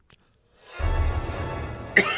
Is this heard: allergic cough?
yes